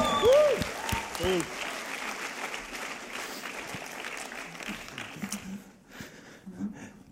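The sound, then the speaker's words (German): An audience claps in sustained applause for the roadies (stage crew), a dense wash of many hands that starts strong, holds steady and gradually thins out, with a brief whoop or cheer near the start. “Und wir geben mal den Roadies einen riesen Applaus.”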